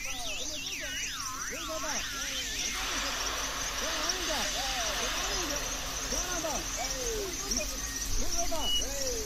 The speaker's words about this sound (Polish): Ja może zrobię kosmiczny dźwięk, słuchajcie.